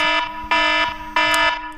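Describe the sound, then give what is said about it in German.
A phone alarm rings, a loud, buzzy electronic tone repeating in short, steady bursts, about three of them, with no one talking over it. “Ja, Warte, mein Wecker.”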